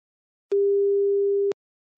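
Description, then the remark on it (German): A single steady telephone ringing tone, a flat one-second electronic beep heard while a call is placed to a mobile phone after a computer connection failed, starting and stopping abruptly with faint clicks, with silence before and after. “ich glaube, wir rufen dich an.”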